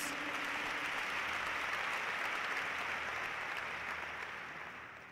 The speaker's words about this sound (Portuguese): Dá uma salva de palmas bem forte para Jesus.